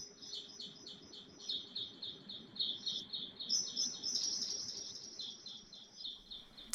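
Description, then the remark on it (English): Continuous high-pitched bird chirping fills a greenhouse, a steady rapid stream of overlapping tweets with no pauses, moderately loud over a low background hum. “it's also a nice atmosphere if you walk through a greenhouse and you hear this constant chirping of the birds.”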